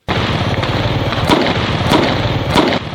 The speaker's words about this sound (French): Les étincelles des feux d'artifice dans le ciel et le bruit des vuvuzelas pour célébrer l'entrée dans la nouvelle année. Certains font exploser des pétards pour manifester leur joie.